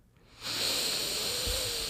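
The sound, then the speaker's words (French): A long, forceful special breath taken while picking cards, a steady airy rush that begins after a brief quiet moment and holds for over a second, with no talking. “Euh, moi, il faut que je fasse une respiration spéciale.”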